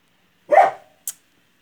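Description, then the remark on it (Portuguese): A dog lets out a single loud bark, then a brief sharp high-pitched sound after a short pause, with silence around it and no talking. “cala a boca, cachorro! Cala a boca! Vai deitar!”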